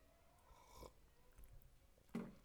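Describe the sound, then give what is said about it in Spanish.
A few soft, brief slurping sips of hot tea, spaced out over a quiet background, with the last sip slightly louder. “si me escuchan hacer eso, permiso, va a ser porque voy a estar tomando mi té.”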